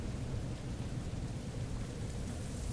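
Steady, fairly quiet ambience of light storm wind mixed with raindrops falling at intervals, a constant rushing hiss with a low rumble underneath and no voices.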